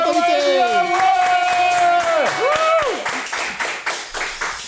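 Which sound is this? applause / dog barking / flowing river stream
applause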